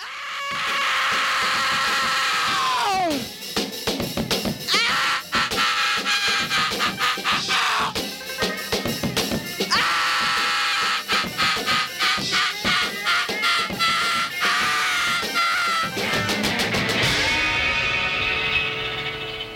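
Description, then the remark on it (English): A man screams and howls in long, strained cries over loud, distorted rock music at the opening of an album, with sliding pitch sweeps and dense crashing guitars that stay relentless throughout. “in the first 15 seconds 30 seconds is … screaming at the”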